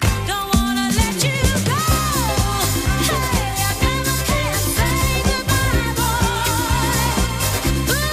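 A 1970s disco song plays loud and full, with a steady pulsing bass line, a driving beat, and sung vocals over lush instrumentation, continuing without pause throughout.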